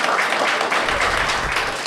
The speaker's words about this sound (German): jetzt können sie mal klatschen, klatschen, klatschen.